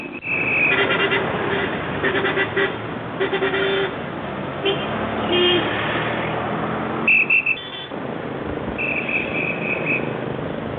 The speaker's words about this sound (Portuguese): Para vocês é só o horrível barulho do trânsito. Aqui é o som da vida, que voltou numa cidade que pode cheirar a fumaça, mas não cheira mais a queimado.